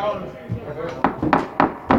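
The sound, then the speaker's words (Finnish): A door being shut by a bailiff, closing off the entrance hall during a court hearing: a series of four sharp wooden thuds in quick, even succession over a murmur of background voices. “Haastemies, sulkekaa se ovi sinne eteiseen.”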